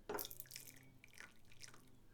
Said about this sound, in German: soll ich dir eine Tasse Tee schön einschenken? Ja, schenk mal dem ein hier. So, zack.